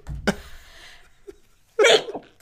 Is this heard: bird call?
no